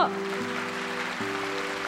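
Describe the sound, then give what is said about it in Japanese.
Audience applause for John Lasseter, a dense, steady wash of many hands clapping that holds at an even level throughout, with a low sustained tone humming faintly beneath it. “ジョン・ラセターさんにもう一度大きな拍手をど”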